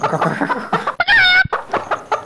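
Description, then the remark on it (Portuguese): A person mimics a clucking chicken, a run of quick, throaty clucks broken by one loud, high squawk in the middle, then more clucking. Fairly loud. “Nossa, imitou uma galinha aí, mano.”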